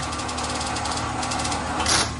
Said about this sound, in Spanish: Coge la cinta de papel que sale de una impresora.